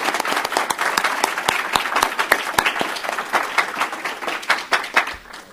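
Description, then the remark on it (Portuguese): A sustained, warm round of applause from honorees, their families and companions at a Samurai Day honours ceremony. Many hands clap densely and steadily, with sharp individual claps standing out, holding a fairly even loudness for several seconds before trailing off. “E agora solicitamos a todos os homenageados, seus familiares e acompanhantes, uma salva de palmas calorosa, homenageando a todos pelo desempenho em prol da difusão dos valores do samurai.”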